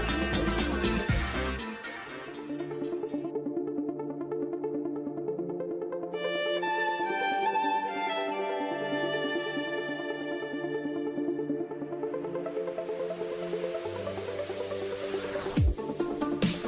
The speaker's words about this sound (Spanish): Amo el momento cuando escucho esta música porque sé que llegamos a nuestro momento del comentarot